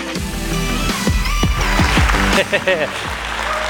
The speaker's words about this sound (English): it's always odd getting rounds of applause. I'll be honest. It is not something I don't know if you can get used to or not.